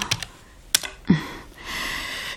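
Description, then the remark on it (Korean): A few sharp keyboard key clicks tapped out in quick, uneven succession as the date January 23 is typed into a solar-lunar calendar conversion program on a computer, followed by a soft sustained hiss. No one speaks. “그해 1월 23일을 입력하면 음력 12월 3일 정축월 임수일”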